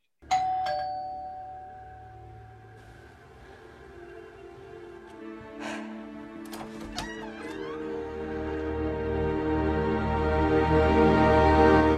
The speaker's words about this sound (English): In the middle of their mm-hmm. conversation, the doorbell rings. He thinks that she made that happen. She says she didn't.